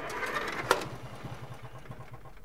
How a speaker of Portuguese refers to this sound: os motores de todas as máquinas que tem na coleção, que não é uma coleção, pegam e funcionam.